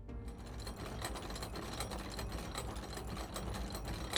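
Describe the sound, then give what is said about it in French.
A steady, dense mechanical whirring and clattering of a series of gears turning and a mechanism grinding into motion as stone bricks sink into the walls of a room, continuous with no voices. “Vous entendez une série d'engrenages, quelque chose se déclenche.”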